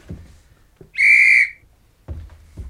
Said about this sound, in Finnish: Ja nyt soitat meille taksin. Ja se tulee kun vihellään, hyvät herrat.